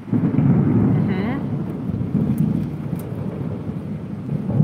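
A deep, rolling thunder rumble fills the whole stretch, steady and loud, with the hiss of falling rain beneath it and a brief faint voice-like tone near the start.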